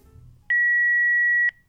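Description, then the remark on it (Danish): A single steady electronic beep from a telephone answering machine, loud and clean, holding one pitch for about a second, with faint low background noise before and after. “Men øh, nu for at blive Region Midt, så skal vi se, om ikke der er kommet noget ind på telefonsvaren netop fra den region.”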